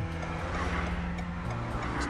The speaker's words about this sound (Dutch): Er komt weer een trein aan. Een trein van auto's over de brug, waardoor je niet verder kunt. Het is iets van wagons, hè?